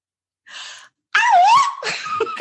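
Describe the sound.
A person vocally imitates a singer's signature yelp: a quick breathy intake, then a loud, high, squealing cry that swoops and bends in pitch before trailing off, without talk.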